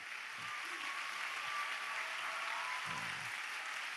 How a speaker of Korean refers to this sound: 다시 한번 박수로 환영해 주세요.